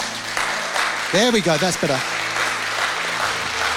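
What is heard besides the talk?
audience clapping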